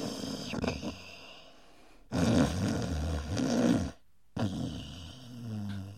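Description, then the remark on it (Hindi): A man napping after a heavy meal snores loudly in long, rumbling breaths, with a rasping inhale, a brief pause, and another heavy snore starting, with no talking. “अरे भाई बहुत ज्यादा खा लिया अब तो नींद आ रही है चलो थोड़ी देर सो लेता हूँ”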